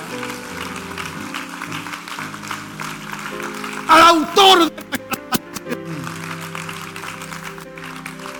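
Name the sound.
audience applause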